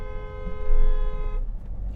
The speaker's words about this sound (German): Schön, dass wir jetzt einen Hupen von uns drauf haben.